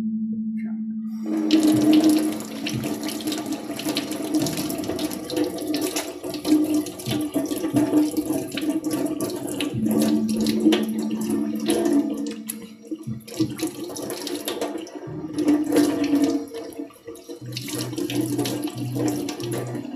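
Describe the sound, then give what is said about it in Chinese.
A tap runs steadily with a broad, hissing rush of water, joined by a low humming tone and intermittent splashes as the water is used to wash a face, continuing throughout without any talking. “哎，水龙头”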